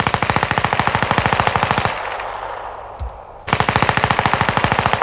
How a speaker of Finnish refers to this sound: Kaislikko vain kahisi järven rannassa ja Rokka saatteli heitä muutamalla sarjalla.